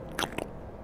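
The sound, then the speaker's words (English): Someone imitates with their mouth a man gulping coffee from a flask: two quick, wet bursts about a fifth of a second apart, with no talking around them. “That, that's the sound of him drinking from the flask.”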